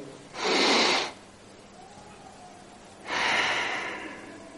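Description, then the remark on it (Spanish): A slow, deliberate breath in, a pause of near silence, then a long, airy breath out, clear with no talking. “básica del universo, que son los tres sonidos o las tres respiraciones, que es respiración, inhalación, silencio, exhalación.”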